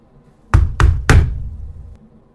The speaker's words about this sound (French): Ça ressemble au bruit d'un poing sur une vitre. Mais non, c'est pas possible.